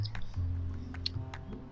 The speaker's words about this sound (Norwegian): Og så kan jeg få ta én tygge før du spiser opp alt. Ja, men, ja, men seriøst, kan jeg få ta én tygge? Tusen takk.